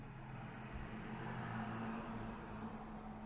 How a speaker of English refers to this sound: Did y'all hear that big city truck?